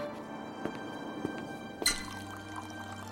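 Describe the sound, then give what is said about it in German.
Water is poured into a drinking glass, with a few soft clinks and drips first, then a steady, quiet pour filling the glass. No one speaks. “Am besten Sie legen sich hier einfach hin und ich bringe Ihnen erst einmal ein Glas Wasser.”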